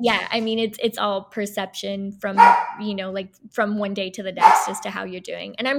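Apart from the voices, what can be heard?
dog barking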